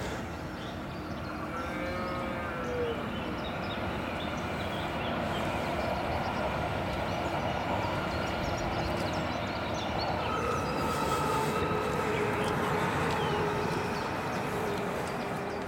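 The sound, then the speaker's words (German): A train rumbles steadily along the rails for the whole stretch, a dense, continuous roar of wagons with faint metallic squeals and clacking rising over it, loud, no voices. “Oder die, die äh, Ach, so Zug da begrüßt von der Kuh.”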